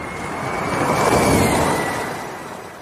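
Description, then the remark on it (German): A Formula E Gen 2 electric race car passes by, a high whine over a rushing roar that swells to a peak midway and fades away again. No one speaks. “Und hör nochmal, das ist jetzt schön, das Auto, das Gen 2 Auto beim Durchfahren.”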